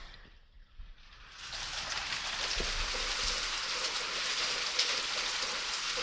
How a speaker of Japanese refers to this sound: えー、ちょっとこう、今ね、すぐ横に窓があるんですけど、窓を開けてみると、雨の音が入るかな。